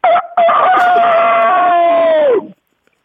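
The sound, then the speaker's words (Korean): A person imitates a rooster's crow, performed slowly as a second attempt: one loud, drawn-out cock-a-doodle-doo with a short opening note, a brief gap, then a long sustained cry that falls away at the end. “자, 그러면 수탁을 다시 한번 천천히 가볼게요.”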